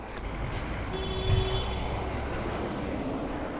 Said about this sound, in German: Also er hupet nicht wegen mir.